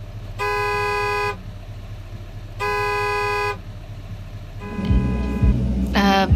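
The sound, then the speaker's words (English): Two long, loud car horn blasts of about a second each, honked at another car blocking the way, separated by a short pause, over steady engine rumble, followed by other honks and traffic noise. “Move your car!”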